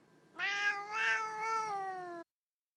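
A cat lets out one long, drawn-out meow lasting nearly two seconds, its pitch wavering slightly before it cuts off abruptly. It sounds clear, with no talking.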